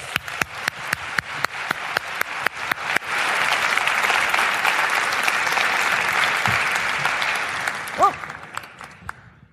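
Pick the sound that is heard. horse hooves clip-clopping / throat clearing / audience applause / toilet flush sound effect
audience applause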